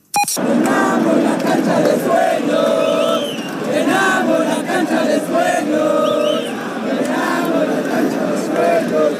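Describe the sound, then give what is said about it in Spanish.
A large crowd of Querétaro football supporters sings a terrace chant in unison, loud and continuous for the whole stretch, the many voices blending into a steady, rhythmic melody with a roaring stadium feel. “Esta a ver si te suena este, de, también del Querétaro.”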